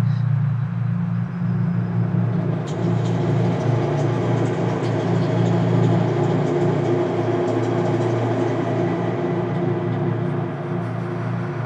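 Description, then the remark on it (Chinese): The low, steady droning rumble of the vertical elevator at the Nanjing University black box theatre, heard in the theatre as the elevator goes up and down, runs unbroken throughout, a deep hum with a faint airy hiss above it and a few soft clicks partway through. No one speaks. “但是它有一个天生的缺陷，就是这个黑匣子剧场呢，它靠一个直行电梯，所以这个电梯每一次上下人，它就在剧场传出，呃，好像是非常这个低沉的，但是在那个寂静的剧场又显得是一种轰鸣的感觉，是吧？”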